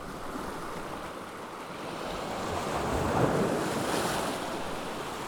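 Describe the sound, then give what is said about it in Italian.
Sea waves wash and break against rocks at Capo di Leuca, the far tip of the peninsula where two seas meet, on a sunny day, in a steady roar, swelling louder midway as a bigger wave crashes, with wind buffeting the microphone and no voices. “Eri seduta sugli scogli, al sole, ad ascoltare l'incontro dei due mari, sulla punta estrema del paese in cui hai scelto di vivere.”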